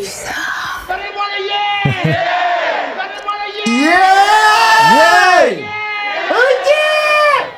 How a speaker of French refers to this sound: J'adore quand on m'applaudit comme ça, quand on, crie pour moi, tu vois, ça c'est.